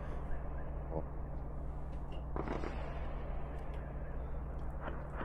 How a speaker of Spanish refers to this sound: Se escuchan los disparos, pero no se ve el destello ni nada del arma. Ahora sí. ¿eh? son disparos al aire, artillería antiaérea eh. Yo creo que es bombardeo.